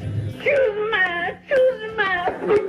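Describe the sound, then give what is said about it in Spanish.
A high, wavering whimpering cry sound effect in repeated drawn-out sobs, fairly loud, with harmonic wails rising and falling across a few seconds and no other sounds around it. “Un saludo a Jaimito, el cartero Segarra, al medio Kiko, al Edson del 8 y a la Chilindrana Cervantes que sigue llorando por su América que quedó eliminado.”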